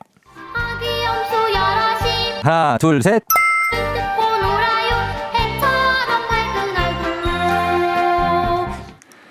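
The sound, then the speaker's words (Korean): A bright children's song about baby goats plays loudly with a bouncy beat during a music quiz on a KBS Cool FM radio show. Midway the host briefly counts "one, two, three" in a sing-song way over the music, marking a lyric for listeners to guess, then the cheerful melody carries on. “여러분들은 노래 속에 들어있는 가사를 맞춰주시면 되는데 들려드리는 음악을 잘, 잘 듣다가 제가 중간에 하나, 둘, 셋 하는 부분이 있거든요.”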